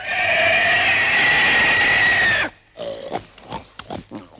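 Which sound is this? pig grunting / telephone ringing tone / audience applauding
pig grunting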